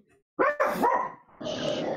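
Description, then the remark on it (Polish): A dog barks: two quick barks followed by a longer, drawn-out bark that trails into a whining tone, with no talking over it. “A i pies też powiedział do zobaczenia.”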